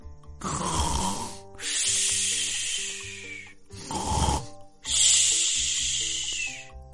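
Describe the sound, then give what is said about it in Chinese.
Two slow snoring breaths from a sleeping cat, each a short rumbling snore followed by a long, loud hissing exhale, with no talking. “鼾声反而更加响了。”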